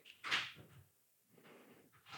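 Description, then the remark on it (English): A door creaks slowly open as a roommate comes home, a drawn-out series of faint scraping, groaning bursts with a short pause between them, quiet with no voices present. “Man, he's taking forever to open that door, bro.”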